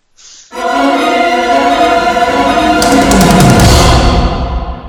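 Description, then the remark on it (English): A person imitates a train whistle with one long, loud, steady hooting note lasting several seconds, after a brief high-pitched squeak at the start. “So if you want to step up to the platform and signal the train and make the noises, I'll get on board reluctantly.”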